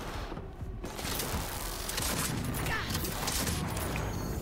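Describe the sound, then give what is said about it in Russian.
Rapid video game gunfire crackles in dense, sustained bursts, loud, kicking in after a brief quieter opening and continuing steadily to the end. “Стрельба вот такая деревянненькая.”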